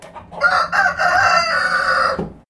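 A rooster crows loudly in one long, sustained call, with soft clucking from hens mixed in around it. No one speaks.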